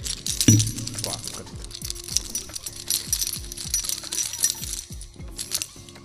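A bunch of keys shaken, jingling and clinking repeatedly, a bright metallic rattle lasting several seconds, recorded on a smartphone as sound material from objects on a desk, moderately loud, with no one speaking over it.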